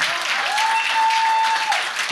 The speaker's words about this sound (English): If you're still walking with the shepherd, oh, you should be clapping.